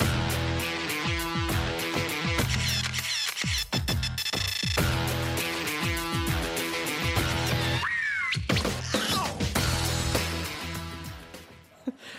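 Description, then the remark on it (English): The theme song of the TV competition show Project Runway plays loud and steady, a driving electronic track with a thumping beat, stacked synth tones, and a few whiny, swooping sounds near the end. “This is the theme song to Project Runway.”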